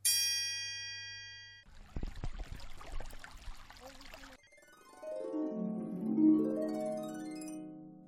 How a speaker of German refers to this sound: Bei Frage 3 ist kein Tier zu hören, sondern Wasser.